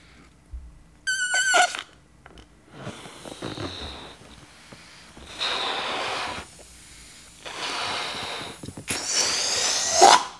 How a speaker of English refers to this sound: So I'm going to blow up a balloon real quickly here.